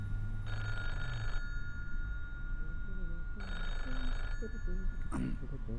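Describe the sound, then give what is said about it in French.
An old-style telephone bell rings twice in evenly spaced bursts of about a second each, clear, with low murmuring voices and background noise underneath; the phone is ringing for the third time and no one answers it. “Ça fait trois fois que le téléphone sonne”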